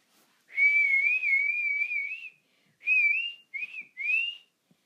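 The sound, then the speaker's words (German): Someone whistles in imitation of birds chirping: a long, warbling trill followed by three short chirpy phrases, fairly loud, with no talking. “Die Vö Vögel zwitscherten schon ganz laut.”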